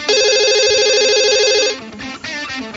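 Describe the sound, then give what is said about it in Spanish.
A telephone rings with an incoming call, a bright, warbling electronic trill for nearly two seconds, loud, then cuts off into a brief burst of muffled line noise. “No, si suena porque está llamando él.”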